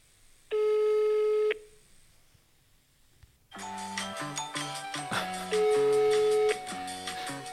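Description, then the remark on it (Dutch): A single long burst of a phone's ringback tone, steady and electronic, followed by a pause and then tinny hold music playing through the line. “Hij gaat over.”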